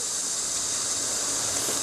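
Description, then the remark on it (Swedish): Beef tenderloin sizzles in a hot pan, a steady, dense crackling hiss that stays loud and even from start to finish, with no voices. “Det som fräste här var oxfilé.”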